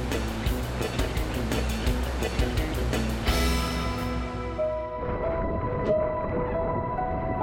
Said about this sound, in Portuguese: E finalmente eu chego ao outside, depois da última linha de arrebentação. É onde quebram as melhores e maiores ondas.